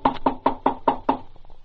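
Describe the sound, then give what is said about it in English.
Six quick, evenly spaced raps on a wooden door at a hotel, firm, in a steady rhythm with no voices. “The sheriff and I squeezed into a closet when the knock came at the door.”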